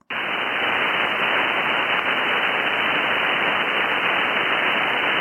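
Steady, loud hiss of local radio interference noise on a shortwave receiver on the HF bands, strongest on 30 and 20 meters, a constant rushing static that starts abruptly and holds unchanged for several seconds with no voices.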